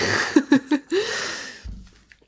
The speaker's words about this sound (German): Naja, du hast ja eine Wasserflasche aufgemacht.